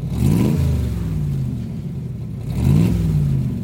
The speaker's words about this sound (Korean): 야, 이거 오토, 오토바이 출발하기 전에 예, 시동 거는 소리네요. 다시 한번 들어볼까요? 네, 오토바이 시동 소리 들으셨죠?